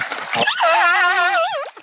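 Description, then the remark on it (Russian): A stranded orca calf weighing over half a tonne, left on the shore when the tide went out, cries with a single drawn-out, wavering squeal that rises and dips in pitch for about a second. It is fairly loud, with no talking over it. “плачет, бедолага, просится в воду, но мы ничем не можем помочь.”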